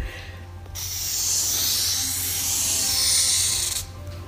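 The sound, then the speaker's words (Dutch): A thick marker scrapes across paper on a drawing pad in one continuous, hissing stroke lasting about three seconds, rising and swelling slightly as it draws a circle for a diagram of circles of influence and concern, with no talking over it. “Dus ik ga die cirkels van invloed en betrokkenheid een keer tekenen. Ik heb hier een papier, eigenlijk een hele blok, een tekenblok en een dikke, dikke stift.”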